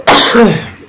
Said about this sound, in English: Bless you again. You might be allergic to your dogwoods.